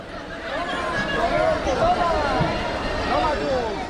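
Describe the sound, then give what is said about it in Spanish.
A lively street crowd at the 2019 San Fermín festival, with Kilikis, costumed figures, chasing children and others through the city streets, fills the air with dense overlapping chatter and excited shouts, a constant loud hubbub with voices rising and falling throughout. “En esta grabación de los Sanfermines de 2019, los últimos festejados antes del estallido de la pandemia, escuchamos a los Kilikis en acción.”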